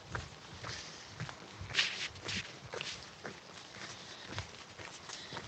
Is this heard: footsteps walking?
yes